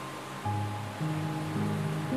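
Sea waves on a sunny day wash in a steady, continuous hiss of surf at moderate loudness, with soft sustained musical tones shifting quietly underneath and no voices.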